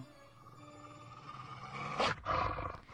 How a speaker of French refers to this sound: C'est, quoi, ça, Oh ça, c'est, c'est Toby, mon chien de garde. bon chien.